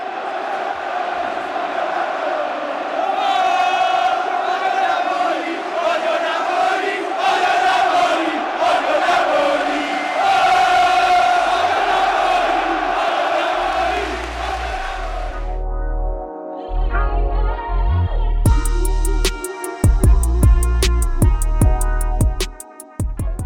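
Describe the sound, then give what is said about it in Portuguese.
A large crowd of northern Italian football fans chants a discriminatory chant against Napoli and the south in unison, "Vesuvius, wash them with fire", loud and rhythmic for about fifteen seconds, then the chant gives way to a different sound with steady tones and sharp hits. “Vesúvio, lave-os com fogo, gritam os nortistas, pedindo para que o vulcão destrua o sul do país novamente, tal como fez em 79 depois de Cristo, quando entrou em erupção e acabou com as cidades de Popeia e Herculano.”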